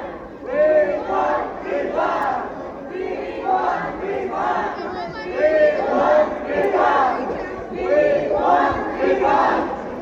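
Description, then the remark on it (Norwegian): A crowd of protesters on a cruise ship chants the slogan "We want refund" in unison, repeating it in a steady rhythm several times, loud, with the shouts overlapping and echoing slightly. “Vi, vi, kan jo høre de her, da, hvordan de demonstrerer. Eh, og de roper da altså, hvis det skal tolkes her, eller det er det de roper låta We Want Refund.”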